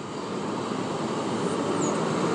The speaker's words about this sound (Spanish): ahora está pasando el camión de la basura,